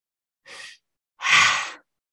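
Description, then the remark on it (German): A deliberate deep breath: a short, soft breathy intake, then after a brief pause a longer, louder airy exhale. No one speaks. “Atme, atme, bewusst,”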